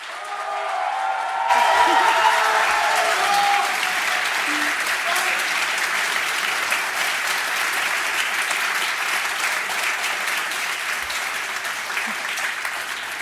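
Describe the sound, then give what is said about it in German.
A large crowd applauds enthusiastically, a dense, steady roar of clapping that swells in after a brief moment and stays loud and unbroken for over ten seconds. “brauche ich mindestens so einen frenetischen Applaus, wie gerade eben am Anfang hier von der Siegerehrung vom Podcast.”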